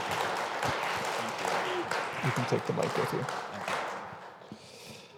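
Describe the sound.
Sustained audience applause, a dense wash of many hands clapping that gradually fades toward the end, with a person speaking briefly over it.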